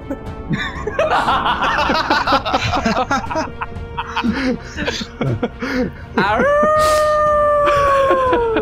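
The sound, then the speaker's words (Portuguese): Amid excited voices and laughter, a person lets out a long, loud, steady wolf howl, held for a couple of seconds at the end. “não, não uiva não, que senão você solta ele.”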